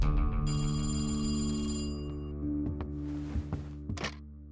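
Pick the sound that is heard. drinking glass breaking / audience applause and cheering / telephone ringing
telephone ringing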